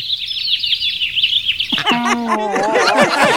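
Rapid, high-pitched sparrow chirps tweet continuously, bright, then a busier tangle of lower, tonal calls and warbles joins in, layering into a dense chorus.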